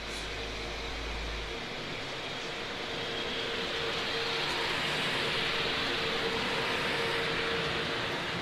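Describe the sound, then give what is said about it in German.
A class 111 electric locomotive rolls slowly into the station at 20, entering a partly occupied track with a shortened entry route, with a steady, broad mechanical hiss and rumble, a faint tonal hum running underneath, gradually swelling in loudness with no one speaking. “Jetzt kommt hier gerade eine 111.”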